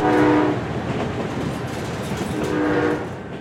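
A passenger train in Italy, on the stretch between Serravalle and Tortona, rumbles steadily along the rails, a loud continuous rolling clatter, with two short horn blasts sounding at the start and again near the end.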